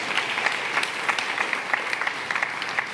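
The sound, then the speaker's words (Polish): Steady applause from an audience, many hands clapping in a dense, continuous patter with sharp individual claps scattered throughout, at moderate loudness with no voices. “To było tak dobre, że tu trzeba oklaski dać po prostu, bo tutaj się nie da inaczej.”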